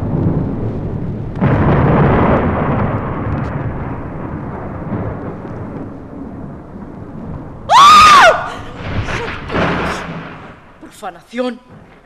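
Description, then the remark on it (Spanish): A loud thunderclap bursts in and rolls on as a long, heavy rumble for several seconds, followed by a sudden high-pitched shriek and a few brief voice sounds. “También se asusta de los truenos.”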